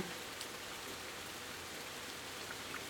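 Steady rain falls outside, a soft continuous hiss with scattered droplet taps, heard through an open window. No one speaks.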